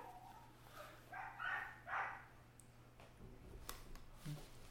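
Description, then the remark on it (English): A dog barks twice in quick succession, muffled, followed by quiet room noise with a few faint clicks and rustles. “Dog break. Dog break.”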